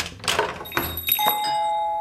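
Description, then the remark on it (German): A bookshop's shop doorbell rings as the door opens for a customer, a bright tinkling chime with a few quick jingles followed by a sustained ringing tone that fades slowly. No one speaks. “Ich würde sagen, bevor wir es noch mehr weihnachtlich werden lassen hier im Buchladen, fangen wir direkt an mit der ersten Kundin, die da vor der Tür steht.”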